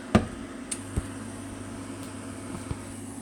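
A steady, low electrical hum from an induction hob with a pot on it, set to high power, drones faintly throughout, broken by a few soft clicks and knocks. No one speaks.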